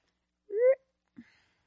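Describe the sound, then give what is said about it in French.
Someone swallows a sip of water: a short voiced, throaty gulp with a slight rising pitch, then a soft low swallow a moment later, with silence around it and no talking. “Je vais juste prendre une petite gorgée d'eau.”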